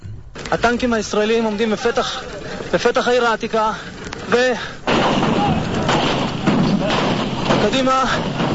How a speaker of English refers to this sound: And you hear the shooting in the background that continues.